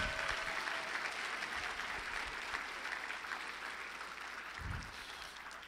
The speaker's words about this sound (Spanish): Si yo fuera tú le daría un aplauso fuerte al rey.